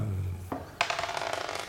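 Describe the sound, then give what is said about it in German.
A single die is rolled on a table, clattering onto the hard surface and tumbling in a quick series of rattling clicks that fade out, with no talking. “Fangen wir mal an zu würfeln.”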